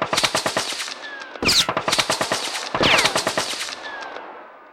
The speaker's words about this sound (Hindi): उन्होंने अपने साथी से कवर फायर देने को कहा और किक मारकर कमरे के अंदर घुसे काफी देर तक गोलियां चलती रहीं